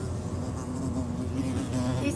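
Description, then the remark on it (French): A wasp buzzes steadily, a continuous droning hum that wavers slightly in pitch for a couple of seconds, with no voices over it. “hmm, c'est une guêpe, je crois.”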